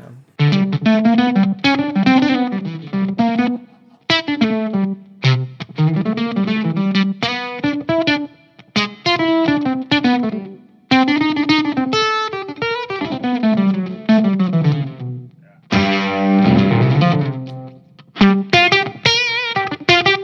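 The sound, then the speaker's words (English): An electric guitar on its bridge pickup with a metallic, ring-modulator-style effect plays loud melodic phrases in bursts separated by short pauses, its tone buzzy and clangorous, with no one speaking. “Like on the bridge pickup, I find it's really that ring moddy kind of.”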